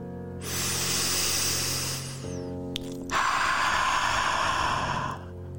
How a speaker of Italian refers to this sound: quindi ispiriamo dal naso con, solo col naso tranquillamente, poi espiriamo dalla bocca con la bocca molto aperta, mettendo sempre la mano davanti alla bocca e immaginando di appannare il vetro davanti a noi.